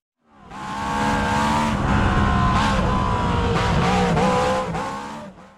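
A Lola race car engine roars continuously at high revs while driving laps, its pitch wavering as it shifts and accelerates, loud throughout with no one speaking.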